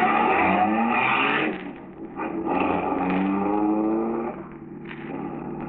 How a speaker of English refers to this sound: the first car, driven by a friend of Marola's, starts down the road